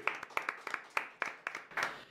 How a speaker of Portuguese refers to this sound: Ele, para quem está vendo ao vivo aqui no YouTube, já sabe quem é ele, Thiago Brunet, salva de palmas.